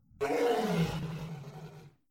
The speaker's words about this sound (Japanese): ライオンのガオーは roar。